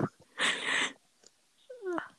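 A cat gives a brief, falling meow after a short breathy hiss, with quiet pauses between the two sounds and no talking.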